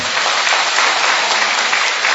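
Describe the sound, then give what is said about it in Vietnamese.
A crowd claps steadily throughout, a dense, even wash of many hands applauding together at a fairly loud level, with no voices standing out. “cho một tràng pháo tay thưa anh chị em”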